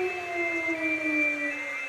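The alarm siren of the volunteer fire brigade of Deisfeld wails steadily to call out the local brigade. It is a sustained tone with harmonics, its pitch sliding slowly downward across the whole stretch, without any talking.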